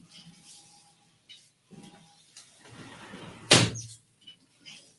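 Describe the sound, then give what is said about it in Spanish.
A balcony door slides along with a rough rattling scrape, then shuts with a single loud, sharp thud, followed by a few faint knocks and near quiet. “He cerrado el balcón porque es que no oigo mi voz.”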